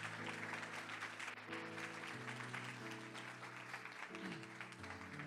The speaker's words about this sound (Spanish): Vamos, dale un aplauso fuerte si tú lo crees, si lo entiendes.